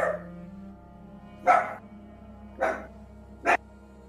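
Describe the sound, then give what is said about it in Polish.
A small white, shaggy dog named Fifi yaps sharply, three or four short barks spaced about a second apart, clear over a low steady background hum, with no one talking. “Słychać jakiegoś pieska szczekającego.”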